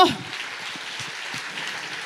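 A steady wash of applause from a church audience during a sermon, dense crackly clapping that holds at an even, moderate level for a couple of seconds without a break or a clear beat.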